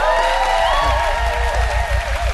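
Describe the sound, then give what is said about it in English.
A church audience cheers and claps together to encourage 10 people about to be baptized, a dense, sustained wash of applause with whoops and raised voices layered on top, loud and steady for a couple of seconds. “So why don't, yeah, why don't you encourage them just with a bit of a cheer?”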